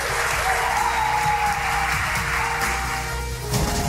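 A crowd at the Paranormal Experience event applauds steadily and loudly, a dense wash of clapping that holds for several seconds without a break, with faint voices mixed underneath.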